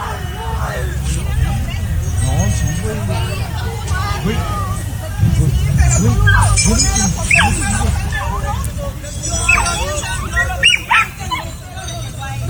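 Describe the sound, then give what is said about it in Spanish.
A dog barks and yips repeatedly amid a chaotic din of shouting, overlapping voices during a fight at a taco stand after a couple refused to pay for their tacos, the sharp barks rising over the steady crowd noise throughout. “No, hasta el perro se puso, hasta el perro se puso bravo.”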